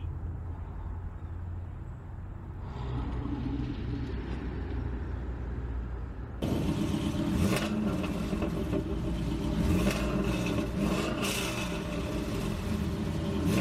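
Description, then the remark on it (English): A bandit car's engine rumbles low and steady on an empty road, then grows suddenly louder and rougher halfway through as the vehicle revs and approaches. No voices are heard. “Wait, isn't that John in the bandit car?”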